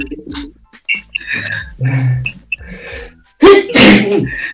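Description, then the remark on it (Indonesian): A person with an itchy nose takes a series of sharp, breathy inhales, then a loud, forceful sneeze bursts out near the end, followed by a brief exhale. “gue masih mau bersin lagi nggak iya, iya.”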